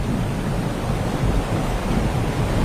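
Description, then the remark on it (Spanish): Powerful hurricane winds roar steadily at the shore in the Florida Keys, where the sea has spilled over a pedestrian area. A loud, continuous rumbling rush with buffeting gusts and crashing surf underneath, unbroken throughout. “estamos viendo y sintiendo a esta hora fuertes ráfagas de viento.”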